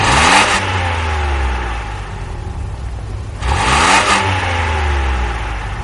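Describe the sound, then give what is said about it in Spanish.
A white car with a flame painted on its side, two men inside, pulls up alongside a man walking down a street; its engine rumbles low and steady, surging twice with whooshing bursts of revving. No voices are heard. “Un coche blanco con una llama dibujada en el lateral se coloca a su altura.”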